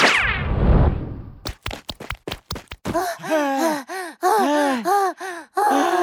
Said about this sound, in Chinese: 猴子警长和小鸡墩墩蹲在一个角落里，不停地喘着粗气。